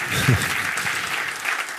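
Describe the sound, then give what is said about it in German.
An audience at a live event applauds the venue's service team at the bar, a dense, steady wash of many hands clapping that fills the whole moment without easing off, with a brief murmur of a voice near the start. “Die wollen gar keinen, die wollen gar keinen Applaus.”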